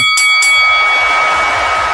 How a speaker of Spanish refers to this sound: cuando suene la campana